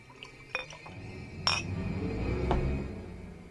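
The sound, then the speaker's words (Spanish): A glass of brandy being poured at a small table: a few sharp glassy clinks, one at the start and more at intervals, over a soft, steady trickle of liquid, with no voices. “Se acercó a una mesita y se sirvió una copa de brandy.”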